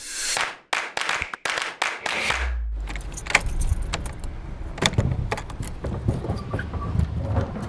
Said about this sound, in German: Knarzend öffnet sich die hölzerne Schiebetür und gibt den Blick frei auf geheimnisvolles Halbdunkel. Hier im Untergeschoss des Bünder Tabakspeichers ruht ein Teil der glorreichen und zugleich auch reichen Bünder Tabakgeschichte.